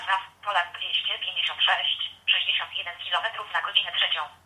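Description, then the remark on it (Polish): A synthetic voice announcement from the Loadstone GPS navigation app, automatically announcing Wiejska street, thin and band-limited as if played through a phone speaker, speaking continuously for several seconds with a brief pause midway. “No, jak słyszymy, komunikat był dość spóźniony.”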